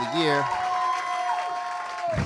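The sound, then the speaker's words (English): A round of applause for the 12 finalists of a Poem of the Year SmackDown at a poetry open mic, steady and fairly loud for a couple of seconds, with a few voices whooping and cheering over the clapping. “Let's give a round of applause for the 12 finalists for Poem of”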